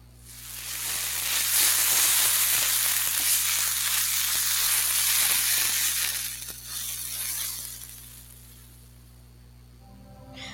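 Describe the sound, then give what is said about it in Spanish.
A steady sizzling hiss of river water being heated by the sun, dense with small crackles and pops, swelling in over the first second, holding loud, then thinning to a quieter simmer near the end. “En este momento queremos invitarte a escuchar el sonido del sol calentando el agua en un río.”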